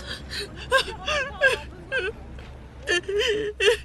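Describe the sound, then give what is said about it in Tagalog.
A person cries to their mother on a phone call at about two in the morning, whimpering in short, shaky bursts, with quivering high-pitched sobs and breathy catches between them, fairly loud, with a low steady hum underneath. “Eh, bakit ka umiiyak? Ano nangyari sa'yo?”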